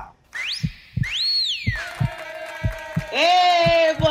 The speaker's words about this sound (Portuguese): com esse assobio aí, ou é assobio? Eu nunca sei dizer se é assobio, assobio, sei que tá assobiando por aí.